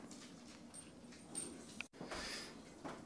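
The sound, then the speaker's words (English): A dog whimpers and whines in short, high-pitched bursts, wanting to be let outside, with faint shuffling and a brief pause midway through. “Okay, now I'm letting the dog out. Yeah, he wants to go outside. He can go bark some more.”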